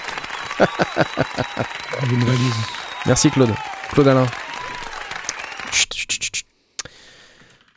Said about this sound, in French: Alors, euh, la suite, tout de suite, euh, sous vos applaudissements.